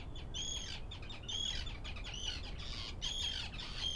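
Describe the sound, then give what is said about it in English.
A busy shorebird colony in Iceland fills the air with harsh, scratchy squawks as the birds fly all around, several calling in quick overlapping bursts over a constant low wind-like rumble. “they're like a shorebird that kind of has the profile of a fighter plane and so they have these kind of skinny arcing wings”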